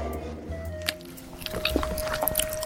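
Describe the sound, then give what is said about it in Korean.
Wet smacking and squishing of gum being chewed, irregular mouth clicks repeating over a few seconds with a faint steady hum underneath and no talking. “계속해서 씹어주세요. 오물오물 쫙쫙 소리가 착착 달라붙는다.”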